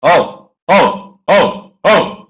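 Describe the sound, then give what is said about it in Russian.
A man's voice imitates a dog barking: four loud, short 'ow'-like barks, evenly spaced about half a second apart, clear with nothing else in the background. “Так вот, немножко они так порычат друг на друга секунд 30, после этого Шаляпин начинает лаять.”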